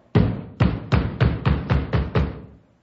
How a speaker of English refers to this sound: Open the door, Flom. What's the idea of beating my door down at four o'clock in the morning?